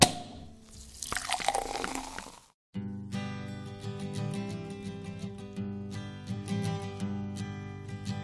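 Sekt (sparkling wine) poured from a bottle and fizzing for a couple of seconds, followed by a brief silence and then a song with guitar and vocals that plays to the end.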